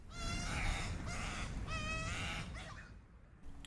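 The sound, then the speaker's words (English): A baby koel chick, an Australian cuckoo hatched in a wattlebird's nest, squawks loudly and insistently for food, giving about three harsh, nasal begging calls in quick succession, with no talking. “You may even hear a baby koel, an Australian cuckoo, whose mother left her eggs in the nest of an unsuspecting frazzled wattlebird and is squawking its lungs out for a meal.”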